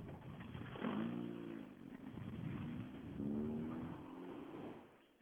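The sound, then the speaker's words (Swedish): Rally car number 68, driven by Magnus Sigvardsson, revs hard twice, rising in pitch with each burst of acceleration, then fades as the car pulls away. “Då ska vi se, då åker nummer 68 här Magnus Sigvardsson”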